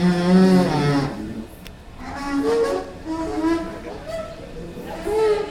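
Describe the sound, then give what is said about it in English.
A Metro escalator at Farragut North groans and moans in long, wavering tones that rise and fall like whale calls, fairly loud, with a low mechanical rumble underneath and no speech. “So here at Farragut North, the escalators might sound like whales mating or something like that.”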